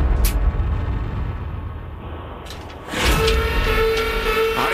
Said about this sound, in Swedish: signal som betyder att det inte var rätt tyvärr då. Nej, och att det var för högt eh, i det här fallet,